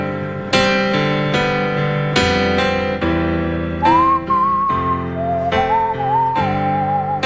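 A whistled song melody, performed by a lounge-singer character on the TV show Life in Pieces, rises in over steady instrumental backing with sustained chords, the clear, pure tone gliding between notes near the front of the mix, with no talking.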